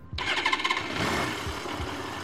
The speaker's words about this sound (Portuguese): Ele liga a, a motocicleta dele.